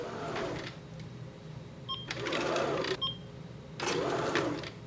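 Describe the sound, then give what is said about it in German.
A laboratory scale standing in the corner in front of a clean room operates with three whirring mechanical bursts, each a couple of seconds long, separated by short pauses, with a pair of faint electronic beeps between them. No one speaks. “In der Ecke vor dem Reinraum, da steht eine Waage.”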